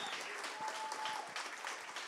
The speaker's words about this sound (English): Hey, could you clap our hands, your hands for our uh, worship team?